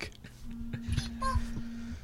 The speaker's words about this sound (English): Oh, that is my phone reminding me to record 10.